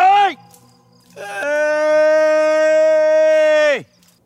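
A man calls out to pigs in Fregenal de la Sierra, Badajoz province, a land of holm oaks, cork oaks and pigs: a brief falling shout, a short pause, then one long, loud, sustained call that holds steady before dropping sharply at the end.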